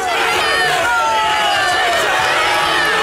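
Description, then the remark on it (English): A dense, steady crowd roar outside Boris Johnson's home in North London, with many overlapping voices shouting and chattering at once, loud and continuous throughout, with a few rising calls poking above the din. “And that was just the friendly crowd waiting outside his home in North London.”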